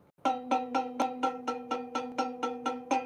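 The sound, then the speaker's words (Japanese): A metal cooking pot is struck about a dozen times in a quick, steady rhythm, each hit giving a bright, ringing clang that blends into the next. Fairly loud, with no talking. “鍋を叩く音なんだそうですね”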